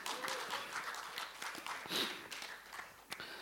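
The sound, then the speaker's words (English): An audience claps steadily for a few seconds to honor pastors, a dense patter of many hands at moderate volume, with a brief higher cheer or whistle rising near the middle. “Can we give them a round of applause again?”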